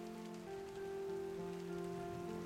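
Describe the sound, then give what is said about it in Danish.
Steady rain patters on a hard surface on a windy spring day, a continuous soft hiss with no distinct drops standing out, accompanied by a faint, sustained low hum running underneath. “Selvom det var forår, regnede og blæste det som en oktoberdag”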